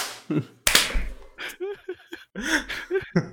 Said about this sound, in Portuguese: Não, vamos bater uma palminha rapidinho então. Um, dois, três palmas, rapidinho aqui